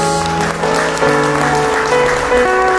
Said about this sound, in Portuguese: Dá uma salva de palmas a Deus.